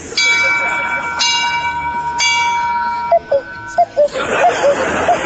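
A bell strikes three times at steady one-second intervals, each resonant chime ringing on and overlapping the next, before a noisier stretch with brief voices takes over.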